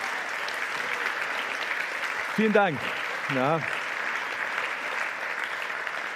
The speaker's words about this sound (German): Aber an der Stelle einfach einen Applaus für die Techniker, weil ihr vergesst sie manchmal, ja? Und auch das Setup-Team heute. Ein Applaus für euch, ja? So, danke, danke euch.